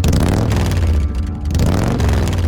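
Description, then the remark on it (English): A loud, deep engine of an old Harley motorcycle with heavy pipes rumbles, throttling back briefly in the middle before the revving swells again, as the rider goes along a highway by a farm just outside Huntsville on his way to work. “He had some real nice pipes on that old hog, and the sound would echo across into the window.”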